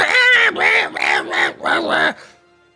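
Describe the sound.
A voice imitates a goblin's scream as the goblin swings back its dirty sword: a loud, shrill, raspy cry broken into about five quick squawking bursts, with no other sound around it.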